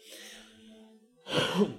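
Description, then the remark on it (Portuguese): A soft, throaty hum or breath gives way to a small cough caused by sinusitis, not a dry cough: one short raspy burst with a double push, louder than what comes before, with no talking. “Deu uma pequena tosse, mas não é coronavírus, é a minha sinusite.”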